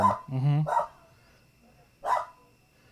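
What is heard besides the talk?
dog barking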